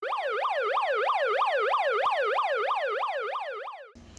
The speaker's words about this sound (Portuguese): ela escuta sirenes cada vez mais próximas.